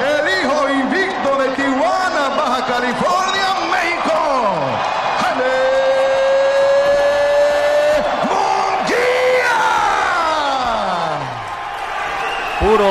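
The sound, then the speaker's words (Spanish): A large boxing arena crowd roars and boos loudly and continuously, applauding Jaime Munguía and jeering British boxer Jimmy Kelly, many voices blending into sustained, wavering tones with long downward-sliding jeers, mixed with yells and cheering. “aplausos para Jaime Munguía y fue sonoro el abucheo para el británico Jimmy Kelly.”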